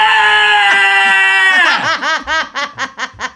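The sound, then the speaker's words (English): A person imitates a scream: a loud, sustained high-pitched wail that breaks after about a second and a half into a rapid series of wavering, pulsing cries. “can I hear a low grade version of the scream?”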